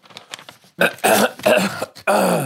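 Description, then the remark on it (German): A few forced coughs in quick succession, loud, each a short harsh burst after some faint breathy throat noises at the start. No speech. “Hast du auch immer beim Rausreißen, damit die anderen Mitpatienten äh, das nicht gehustet. hören, gehustet?”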